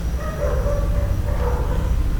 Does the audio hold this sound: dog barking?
yes